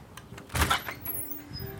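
The front door of a red-brick bed and breakfast in Winnipeg, Manitoba, Canada, is opened: a brief latch rattle and a dull wooden thump, then a faint low hum of quiet indoor ambience for the rest of the moment.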